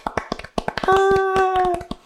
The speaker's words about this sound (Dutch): Ik heb geen, uh, geen audiosample van een applaus. Dus wat ik doe is gewoon even zelf, even voor onszelf klappen. Als we ja, maar... met z'n even meedoen, jawel. want dan klinkt het meer als applaus.